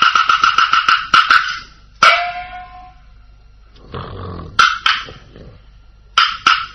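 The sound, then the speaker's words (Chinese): A performer imitates the beggar character Li Si'er snoring with bursts of buzzy, rattling pulses, then a long rasping breath, followed by more short, snorting rattles. No words are spoken. “这小子咋还打上呼噜了呢？”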